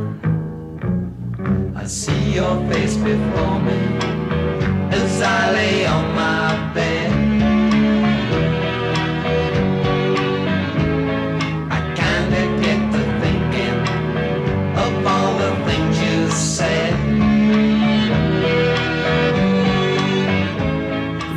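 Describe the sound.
A late-sixties pop song plays at a steady, full volume, with a male lead vocal singing over a rhythmic band backing and sustained chords.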